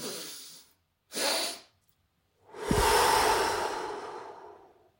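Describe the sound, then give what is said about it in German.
Two quick, airy sniffs in through the nose, one right after the other, then a long, slow, breathy exhale that gradually fades out, done as a breathing technique: a double inhale, then breathing out to a count of six. Fairly loud, with no talking. “Dann setzt man noch so einen Seufzer, so dass sich die Nasenflügel fast so äh, ein bisschen zusammenziehen, nochmal einen drauf und atmet dann bis sechs aus”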